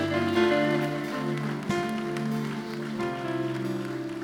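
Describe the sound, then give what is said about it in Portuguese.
An audience at a church service claps to applaud the Lord after a prayer, a steady, dense patter that runs the whole time, mixed with sustained keyboard chords holding underneath. No one speaks. “Se você viu alguém fazer essa oração, abraça a pessoa enquanto nós aplaudimos ao Senhor, igreja, porque Ele é vivo, Ele é rei, Ele é maravilhoso.”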